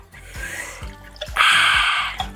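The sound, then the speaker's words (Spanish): Ice cubes clunk a few times into a small jar holding crushed chopped jalapeño and raspberries, then grapefruit juice pours steadily over them for about a second in a splashy rush, with a couple more knocks near the end. “Ya que está todo machacado, vamos a poner hielos. Después ponemos nuestro jugo de toronja”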